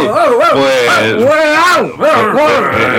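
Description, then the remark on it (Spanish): A dog barks and yowls, loud, drawn-out calls rising and falling in pitch, running almost continuously for a few seconds with a brief break near the end. “Hasta perros traemos.”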